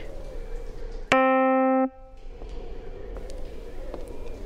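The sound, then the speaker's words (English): A faint, steady whirring drone of a giant fan continues throughout, briefly interrupted by a loud, sustained electronic tone lasting under a second. “Hear that? It's faint, but it's that giant fan.”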